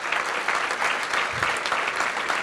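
An audience of about 600 people applauds itself for coming, many hands clapping in a dense, even roar of claps that holds at a constant loudness without pause.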